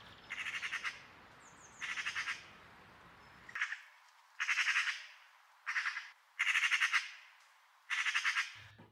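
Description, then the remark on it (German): A magpie's harsh, rattling chatter comes in repeated bursts of rapid clicks, about seven loud rattles separated by short pauses, with no one speaking. “Ich glaube, ich meine die Elster, die so komisch geckert.”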